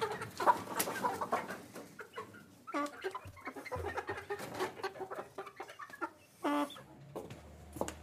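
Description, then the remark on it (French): Several chickens cluck and squawk in a busy, overlapping chorus of short, irregular calls, with a few louder sharp squawks rising above the steady chatter. “on fait plutôt du jardinage et qu'on tue des poules et j'aime ça”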